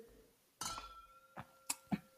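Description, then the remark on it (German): Wine glasses clink together once in a toast while tasting a Lemberger wine from Württemberg, leaving a brief ringing tone, followed by a few softer knocks and taps. No one speaks. “Ja, zum, zum Wohl, würde ich sagen.”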